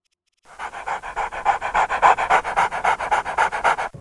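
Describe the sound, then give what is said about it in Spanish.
A dog named Chucho pants rapidly and steadily, a fast rhythmic series of breathy huffs lasting several seconds after a brief silence, with no voices. “Feliz Navidad para ese, mm, ese perrito.”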